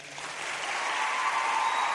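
Steady audience applause fills the whole two seconds, a dense, even patter of many hands clapping at once with no voices breaking through.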